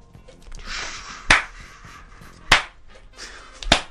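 Three sharp, loud claps land at a slow, steady beat about a second apart, separated by stretches of soft hissy noise, with no voices.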